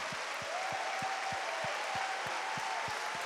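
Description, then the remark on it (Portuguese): An audience applauding the Lord in a dense, steady wash of clapping, with a regular low thumping beat pulsing underneath and a faint sustained tone in the background. “Aplauda o Senhor!”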